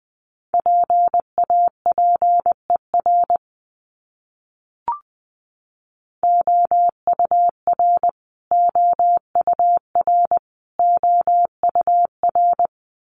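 A steady mid-pitched Morse code tone at 20 words per minute keys out a short word in quick dots and dashes. After a pause and a single click, the same word repeats three more times.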